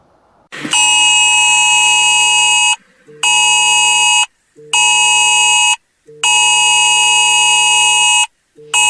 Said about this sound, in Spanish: Claro, tú estás tranquilamente en tu casa, en tu trabajo o sacando al perro de paseo y de repente empiezas a escuchar este pitido en tu móvil, te lo sacas del bolsillo y ves que en la pantalla aparece un mensaje